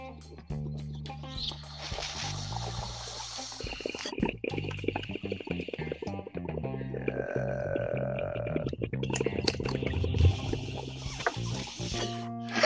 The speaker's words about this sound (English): Let me take me another uh, a dab right now, man. Some of this Puff Wiser, you know, cheers.